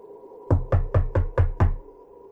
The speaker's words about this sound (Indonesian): suara ketokan pintu kamarku oleh seorang.